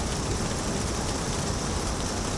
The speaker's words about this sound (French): Il y a 10 minutes, il a commencé à pleuvoir un peu, puis beaucoup, puis beaucoup beaucoup. Nous sommes maintenant réfugiés sous un arrêt de bus en attendant que les trompes d'eau s'arrêtent.